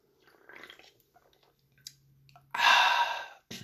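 Soft sipping and gulping sounds for a couple of seconds, then a loud, breathy, satisfied "ahh" exhale that lasts almost a second before a brief final breath.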